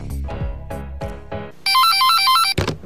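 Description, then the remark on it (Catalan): A loud electronic telephone ring trills in a rapid alternating two-tone warble for about a second, following a few short rhythmic musical hits at the start. “Telèfon verd, digui'm.”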